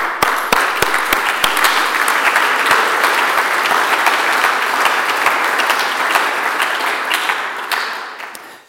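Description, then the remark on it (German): Sustained audience applause at a sermon, a dense steady roar of many hands clapping at a strong level throughout, tapering slightly in the final second. No voices are heard over it. “Das ist Applaus wert.”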